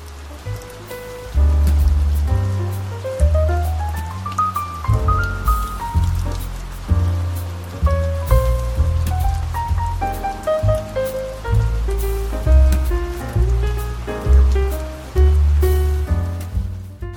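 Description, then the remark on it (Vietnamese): Steady rain of a storm patters throughout beneath a soft melodic piano-like tune with deep bass notes, the downpour forming a continuous hiss behind the music, with no one speaking. “dưới một cái thời tiết mưa bão như thế này nha”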